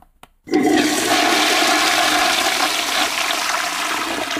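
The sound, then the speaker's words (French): A toilet flushes, starting with a sharp click and then a loud, steady rush of swirling water that continues for several seconds and begins to ease toward the end. “On a flushé.”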